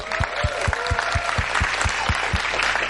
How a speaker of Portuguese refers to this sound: Aquele bicho que recebe um diploma, né? Vamos aplaudir aí?